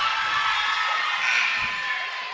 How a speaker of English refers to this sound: That Dadeville crowd across the floor loud tonight.